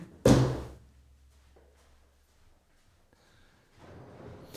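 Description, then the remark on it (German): A refrigerator door shuts with a heavy thunk, followed by a low hum and faint rustling, then a softer shuffling as the door seems to open again near the end, as someone takes a White Claw Hard Seltzer from the fridge. “ist gerade an den Kühlschrank gegangen und kredenzt hier eine weiße oh, White Claw Hard Seltzer.”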